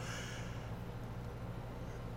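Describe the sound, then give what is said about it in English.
A soft, breathy yawn drawn out over a couple of seconds, heard quietly against a steady low background hum, with no talking. “yes, sorry as I yawn there.”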